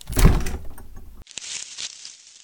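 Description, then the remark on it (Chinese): A refrigerator door is pulled open with a soft thump and rattling seal, followed by a steady airy hum and a few light clicks as items shift inside while someone searches the fridge for leftover cake. No one speaks. “啊，对了对了，我记得冰箱里还有昨天吃剩的蛋糕，我找找看哦。”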